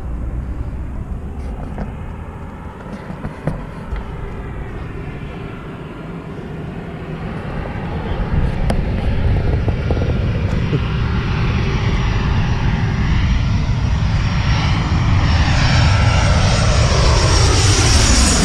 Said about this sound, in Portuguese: tem, na cabeceira da pista, um... eu tô ajudando a estacionar, a aterrizar o avião